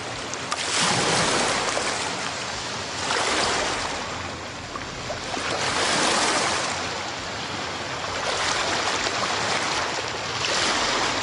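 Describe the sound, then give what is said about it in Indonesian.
Ocean waves wash onto Jimbaran beach in a steady, broad roar, swelling and easing roughly every few seconds as each wave breaks and recedes, loud with no talking. “sembari Uh, menikmati keindahan pantai Jimbaran nih ya.”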